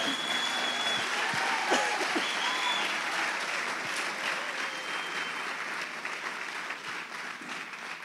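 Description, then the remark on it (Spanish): A church audience applauds steadily for the full eight seconds during a Spanish-language sermon, a dense, even wash of clapping with a few faint whistles rising above it, easing off only slightly toward the end. “Y si va a aplaudir, hágalo con ganas porque Él vive.”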